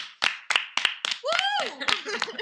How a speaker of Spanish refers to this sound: Los haters aman haters. Un aplauso para los haters, por favor.